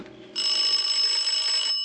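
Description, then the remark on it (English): A doorbell at the front door of a house rings in one long, steady burst, a shrill, bright electric tone holding for just over a second before cutting off, with no voices. “I rang the doorbell and waited.”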